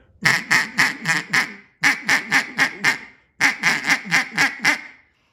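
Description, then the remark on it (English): A duck call blown by grunting into it without air, giving raspy quacks in three quick bursts of five or six notes each, loud, with short pauses between bursts and no talking. “That's that. That is all grunting, no air.”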